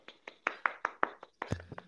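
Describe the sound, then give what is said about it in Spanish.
A short burst of hand clapping, about eight sharp claps in a quick, steady rhythm from what sounds like one or two people, with a brief low hum at the end. “Ahí va, aplausos.”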